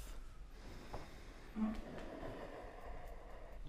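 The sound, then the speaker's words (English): Soft, airy breathing of a person deliberately making the sound of their breath, head dropped towards a mat and jaw, neck and shoulders relaxed; a slow inhale swells around the middle and trails into a long gentle exhale, quiet with no talking. “Relax your jaw, your neck, your shoulders, and generate the sound of your breath”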